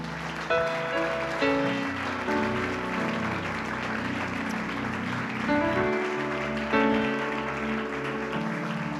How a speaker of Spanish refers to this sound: Dale un aplauso al Señor por esto.